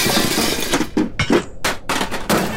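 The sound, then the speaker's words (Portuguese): A metal grill is smashed apart with a rapid series of loud, harsh, clanging and crunching impacts, bright metallic rattles ringing between the blows. “Veja o que eu faço com a porcaria desse grill.”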